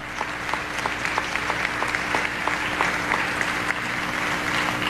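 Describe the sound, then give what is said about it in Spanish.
An audience applauds the Simón Bolívar concert band, the Orfeón of the University of Zulia and the Grupo Lírico del Estado Zulia. It is a steady, dense wash of clapping with a few sharper claps at a regular beat, sustained at an even level with a faint low hum beneath. “Un saludo y un aplauso para la banda de conciertos Simón Bolívar, Orfeón de la Universidad del Zulia y Grupo Lírico del Estado Zulia.”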